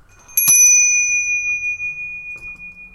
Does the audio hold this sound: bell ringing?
yes